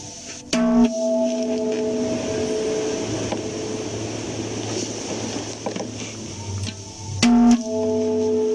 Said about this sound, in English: If I can get this one to vibrate sympathetically with this one. I'm going to hit this drum and then I'll stop the sound from resonating so that you can hear this one resonate. It'll be very slight, but you should notice it.